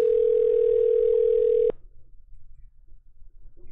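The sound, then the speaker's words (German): A single steady telephone ringback tone hums for under two seconds while a phone call is being placed, then cuts off, leaving only faint background noise and no voices. “Nee, hat länger geklingelt, aber trotzdem, trotzdem zu Ende.”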